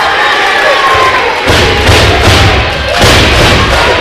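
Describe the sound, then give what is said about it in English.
A loud, dense crowd at a wrestling match roars and cheers continuously, with heavy low thuds and booming impacts surging beneath the noise, like bodies slamming. “Man, the crowd is just loving him.”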